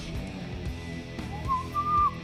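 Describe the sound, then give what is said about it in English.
A high, thin whistle-like tone rises and holds over a dense, loud rock band backing, appearing about halfway through and sliding up before sustaining near the end. “Yeah, and there's that whistle right there.”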